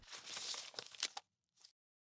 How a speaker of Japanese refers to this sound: 彼は、カバンの中からおもむろに一冊のパンフレットを取り出した。